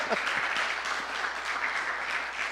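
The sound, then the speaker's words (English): A crowd breaks into steady applause, a dense wash of many hands clapping at once, sustained and fairly loud throughout with no voices standing out. “I think, can we like applaud that?”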